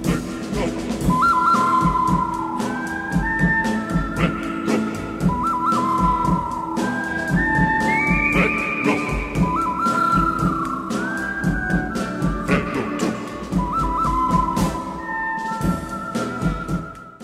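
The whistled theme music of the western film The Good, the Bad and the Ugly, bright sliding high notes phrased over a steady rhythmic instrumental backing, loud and continuous throughout with no talking.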